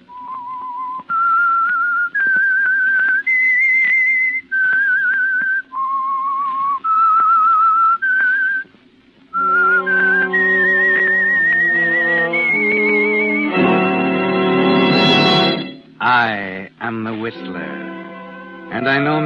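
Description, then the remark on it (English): A lone whistler carries the slow, eerie theme tune of the radio show The Whistler, the Signal Oil Program, in clear, sustained notes that rise and fall, then a full orchestra takes over the melody and swells to a loud, dramatic finish. “That whistle is your signal for the Signal Oil Program, The Whistler.”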